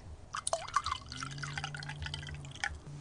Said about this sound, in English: is just pouring us another glass of blue wine tonight.